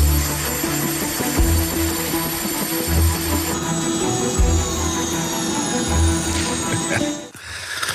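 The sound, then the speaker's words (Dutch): A helicopter drones steadily with a high engine whine over low, rhythmic rotor thumping, fairly loud and continuous before dropping away abruptly near the end. “Je zet er een muziekje onder, geluid van helikopters.”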